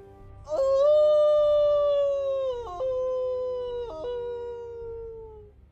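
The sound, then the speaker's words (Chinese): A she-wolf by a trap lets out a long, loud howl toward a snowy sky as snow falls. The howl rises sharply and holds a steady, fairly high tone for about five seconds, with two brief breaks in pitch, before it slowly sinks and fades. No one speaks. “母狼蹒跚的走向陷阱，对着白雪飘飞的天空，发出了刺耳长鸣。”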